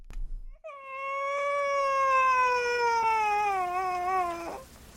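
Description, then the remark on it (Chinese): A child cries in a tavern in one long, high-pitched wail that slowly slides lower in pitch, loud and sustained for about four seconds before cutting off, with no talking. “酒馆里响起了孩子的哭声，女人没去管他，小孩子哭着哭着自己停了下来”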